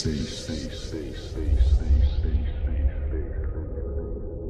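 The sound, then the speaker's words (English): Deep, heavy bass throbs loudly and steadily, swelling in the middle, while brighter upper sounds gradually fade away, leaving a thick, muffled low-end pulse. “And listen to this fat bass that will send the blood coursing through your veins.”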